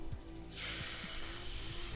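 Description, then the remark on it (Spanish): After a brief quiet start, a voice imitates a snake with a long, steady, loud hiss that holds for about a second and a half. No words are spoken. “Una serpiente que pasaba junto a él lo escuchó y ceseando le recomendó.”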